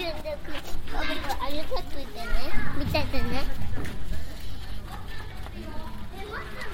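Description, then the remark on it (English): Children's voices chatter and shout in a lively, continuous jumble outdoors in a residential area of central Tokyo, with high excited calls rising over a steady background hum of open-air ambience. “Sounds of children, bicycles, and ambulances.”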